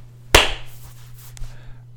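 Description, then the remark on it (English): A single sharp hand clap rings out, loud and crisp, its bright smack trailing off into a soft decay over a steady low hum, followed by a faint second tap. “You just gotta clap.”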